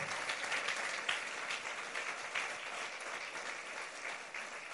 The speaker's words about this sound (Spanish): apláudela a Jesús en esta noche, en esta mañana. apláudela a Jesús fuerte.